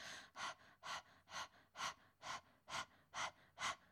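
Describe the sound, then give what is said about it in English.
A person pants like a dog with the tongue sticking out and the belly pumping in and out, a steady series of about eight quick, breathy huffs at an even rhythm, clear with no talking. “Stick your tongue out and start panting in the same fashion that a dog would.”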